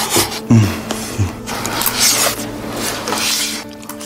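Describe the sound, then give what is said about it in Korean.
Sounds of rice being cooked and eaten: a steady hissing, scraping and rubbing texture over a low mechanical hum, with a few soft knocks near the start. No voices. “생각을 여는 소리 사운드 오브 데이 밥 짓는 소리 밥 먹는 소리 소리만 들어도 갓 지은 밥 냄새가 폴폴 나는 것 같습니다.”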